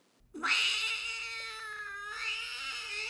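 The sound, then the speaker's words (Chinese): A ten-pound cat that has not been neutered lets out one long, loud, drawn-out meow, a wavering yowl that rises sharply and holds for nearly three seconds, with no one talking. “这只猫还没做过绝育”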